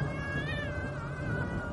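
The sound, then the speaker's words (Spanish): A black cat cries in one long, wavering meow beside a dark road near a bridge, holding steady for nearly two seconds, a plaintive, drawn-out wail over a low background rumble, with no one speaking. “Recuerdo que a nuestro lado se escuchaba que un gato lloraba.”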